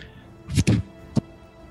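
Arrows thud into sand: two or three dull, heavy impacts land in quick succession, then one more strikes alone after a short pause, with no voices.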